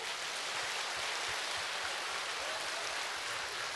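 A dense wash of applause from many hands, steady and even for the whole few seconds, with no distinct individual claps and no voices on top.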